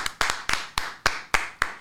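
A slow, steady round of applause from a lone pair of hands, greeting news of the Cubs' first sweep of the season: about seven sharp, crisp claps at an even pace, each ringing briefly, with no voices.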